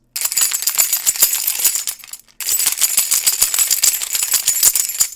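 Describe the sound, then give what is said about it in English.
Keys are jangled loudly in front of a microphone, a bright metallic shaking that runs continuously, pauses briefly for a moment, then resumes with the same busy clinking. No voices. “That's me jangling my keys in front of the microphone.”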